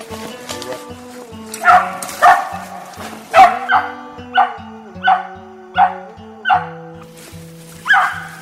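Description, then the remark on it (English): Squirrel dogs, dropped off mules in the Ozarks in winter, bark steadily at a squirrel treed within 10 minutes. Sharp, loud barks come roughly every second, with a sustained tonal music bed running underneath. “Within 10 minutes of dropping the dogs off the mules, they were treed.”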